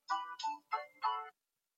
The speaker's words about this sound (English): Listen, there goes the bell.